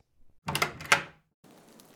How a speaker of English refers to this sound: Another knock at the door. You know what that must mean?